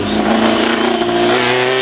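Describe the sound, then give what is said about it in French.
The engine of a Matra Formula One race car, the 1969 world-championship car, revs loudly in a sustained high-pitched snarl whose pitch climbs slightly over the short burst, with no voices present. Such cars are exhibited at the Matra museum in Romorantin-Lanthenay, Loir-et-Cher, France. “Ça, c'est le bruit de la Formula Matra de Jackie Stewart,”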